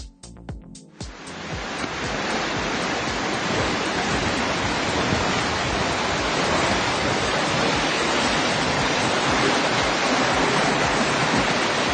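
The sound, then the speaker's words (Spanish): A loud, steady roar of rushing water from intense heavy rain flooding in the town of Béjar and its surrounding district, cutting in after a few brief knocks, a dense churning wash like floodwater pouring through a street, with no voices. “Empezamos por la primera, por esas lluvias que se dejaron notar con intensidad ayer en la ciudad de Béjar y en la comarca.”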